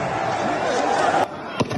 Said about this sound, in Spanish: Estos son sonidos de los miles de partidarios de Bolsonaro tomando los edificios oficiales.